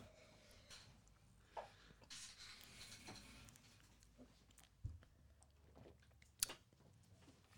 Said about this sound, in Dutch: ik, ga, nog een slokje nemen.